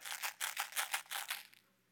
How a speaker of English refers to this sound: And so I picked it up. And you know, when you pick up a box of Tic Tacs, there's that Tic Tac sound. You know what I'm saying?